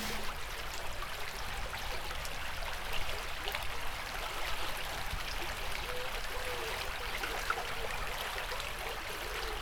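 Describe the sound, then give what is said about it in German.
A babbling brook flows steadily over stones, its bright, continuous gurgling and splashing filling the scene at an even level for the whole stretch. “Man kann einen Bach langlaufen.”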